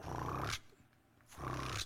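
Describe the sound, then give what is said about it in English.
Monkeys calling close by in the jungle, somewhere on a trail, two loud, deep, rasping roar-like calls separated by a short quiet pause, with no talking. “There was these monkeys and they were coming real close to us, and they were trying to see what we were doing, and then they started throwing stuff at us.”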